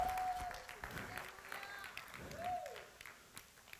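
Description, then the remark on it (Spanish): An audience applauds for the Lord, a dense wash of clapping from many hands filling the space, with a raised voice calling out over it and swooping shouts rising and falling. “Dan un fuerte aplauso al Señor por eso.”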